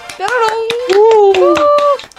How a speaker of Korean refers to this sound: 박수.